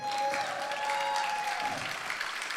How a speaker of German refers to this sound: Schon mal an der Stelle einen Riesenapplaus für die beiden.